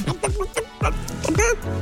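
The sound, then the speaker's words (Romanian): Rapid clucking and squawking calls like chickens or turkeys, a burst of several choppy, rising and falling notes that continue loudly for the couple of seconds. “Cum sunt găinile alea? Da. sau curcani sau ceva.”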